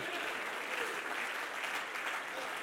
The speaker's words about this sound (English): Come on, clap your hands and pray.